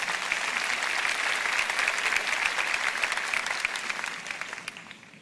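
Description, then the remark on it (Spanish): Sustained applause from an audience, a dense crackle of many hands clapping steadily for about five seconds before gradually tapering off at the end, with no voices heard. “Y quiero que lo sepas, papá. Aplaudan.”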